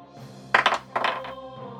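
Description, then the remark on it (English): Dice rattle and tumble across a tabletop in two quick bursts of small, bright clicks, fairly loud, over a quiet, steady tonal background, rolled for an attack in a tabletop game, one roll showing a four. “Another four on the dice.”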